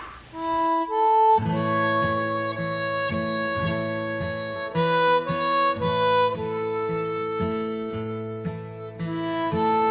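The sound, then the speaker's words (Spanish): The traditional folk song Red River Valley plays slowly as background music in a scene from John Ford's 1940 film The Grapes of Wrath, on sustained, reedy instrumental tones with a gently pulsing accompaniment underneath, steady and moderately loud throughout, with no voices. “la música que escuchan de fondo ¿sí? es, algunos la llaman Red River Valley, ¿sí? es una canción tradicional”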